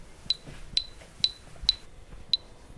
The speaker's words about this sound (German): Hier diese Richtungsänderung, man hört da immer diesen Pfiff und dann eine gesprochene Richtungsänderung, was natürlich auch viel direkter ist und schnelleres Handeln ermöglicht.